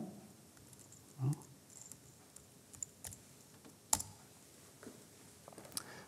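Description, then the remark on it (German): Quiet tapping on a computer keyboard as a customer password is typed in, a short run of scattered key clicks at an uneven pace, with one louder knock partway through and no voices. “Ich gebe das gerade mal ein.”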